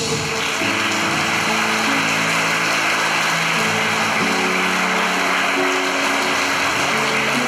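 An audience at the Batista Vida church applauds for Jesus after a love song, in a dense, steady wash of clapping that holds at an even level throughout, with sustained low keyboard tones ringing underneath.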